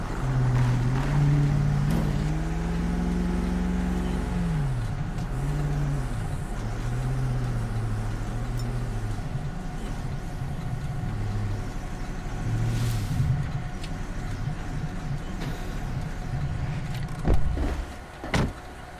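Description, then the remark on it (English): A car engine hums steadily while driving around to park at the back of the station, its low pitch rising and dipping as it maneuvers, with a couple of brief knocks near the end and no talking. “10 4, I'm gonna just park around back.”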